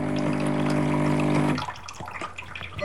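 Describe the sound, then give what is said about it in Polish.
Steady rush of water flowing through an espresso machine as it rinses itself after being switched off, with a low mechanical hum for about a second and a half, then it cuts off, leaving a few faint drips and small clicks. “I on się znowu przepłukał.”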